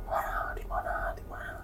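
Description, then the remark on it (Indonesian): A voice imitates eerie whispering in three breathy bursts, hushed and airy with brief pauses between them, steady over a low background hum. “gue buru-buru balik dan itu suara bisikan makin keras makin keras keras gimana”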